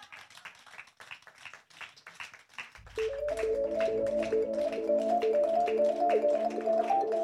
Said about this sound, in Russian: Аплодисменты, нескончаемые аплодисменты, конечно.